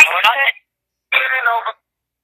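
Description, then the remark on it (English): A phone alert goes off on one of the speaker's phones: two short, bright tonal bursts about half a second each, separated by a brief pause, fairly loud, with no talking over them. “Sorry, that's one of my phones.”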